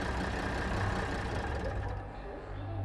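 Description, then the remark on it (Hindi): The engine of a truck carrying a container of equipment to Mettupalayam station rumbles steadily in a deep, continuous drone that fills the whole stretch, easing off briefly near the end before building again. No one speaks. “दूसरी तरफ गार्ड ने बड़ी चालाकी से ट्रक ड्राइवर के साथ मिलकर कंटेनर को इक्विपमेंट के साथ मित्तु पलायम स्टेशन तक पहुंचा दिया”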